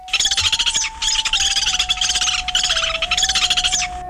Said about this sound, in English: Lewis's woodpecker.